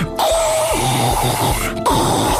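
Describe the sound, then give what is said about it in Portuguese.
A loud, rattling slurp of a straw sucking up the last bit of cola among ice cubes, in two long gurgling pulls separated by a brief pause, as someone drains a drink in a cinema during a film. “quando estão entretidas a ver um filme, que é sorver tudo até ao fim, como se a sua vida dependesse daquele último vapor de cola que está no meio dos cubos de gelo.”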